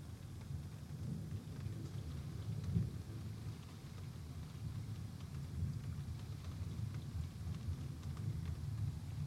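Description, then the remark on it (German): Steady rain hisses throughout while deep, rolling thunder rumbles low and continuous, swelling briefly near the start; a dense, enveloping thunderstorm with no voices. “Die Geräuschuntermalung jedenfalls schon mal ganz gut. Regen und Gewitter.”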